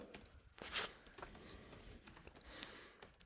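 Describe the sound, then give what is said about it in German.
Rapid, uneven clatter of keys on a computer keyboard, fairly quiet, with a brief rustling burst near the start and no voices. “Alter, ich kann heute echt nicht mehr tippen.”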